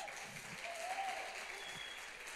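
An audience at an evening church service applauds steadily to welcome a guest preacher, a dense wash of clapping that holds at an even level throughout with no pauses, no voices rising above it.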